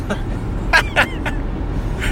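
Steady low road rumble from inside a moving car, recorded on a handheld phone, fills the background, with a few short vocal bursts from someone in the cabin breaking through.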